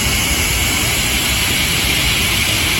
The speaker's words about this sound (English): So, Saudi. I believe that's the Saudi jet. Yeah. Kind of loud in here.